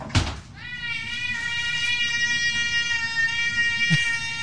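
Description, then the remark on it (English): A young cat, about four years old and roughly seven pounds, gives one long, drawn-out meow asking for food as the refrigerator door is opened, holding a steady, insistent pitch for several seconds, loud, with no talking. “and the cat's probably four years old, kind of young, probably me, you know six, seven pounds, maybe seven pounds, and here she goes looking for food. Meow.”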